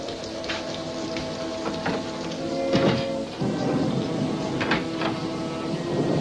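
Steady rain patters down in a dense wash, with a few sharper cracks and rumbling swells rising through it, like a storm carrying on with thunder. No one speaks.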